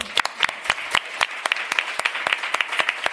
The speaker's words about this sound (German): Und deswegen einmal einen großen Applaus für euch.